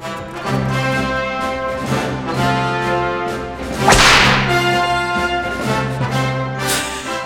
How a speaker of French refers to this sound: Alors on commence la journée, oui, avec un fouet, c'est vrai, mais surtout avec les trompettes et la grosse caisse.